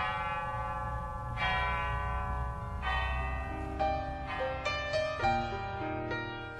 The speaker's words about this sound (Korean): 현재 금성교회 성전 안에 있는 낡은 종은 이곳 종탑에서 갖고 온 종입니다. 이제는 올리지 않는 종, 그 옛날 새벽마다 울렸던 종소리가 다시 울릴 그 날을 기대해 봅니다.